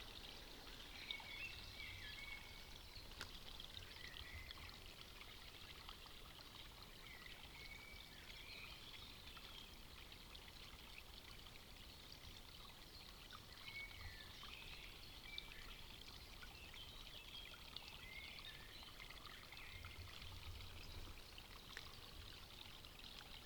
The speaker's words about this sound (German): ein kleines Bächlein gefunden. Ich bin so tief in den Wald gegangen, wie es erstmal möglich war, um wirklich die Autobahn nicht mehr zu hören.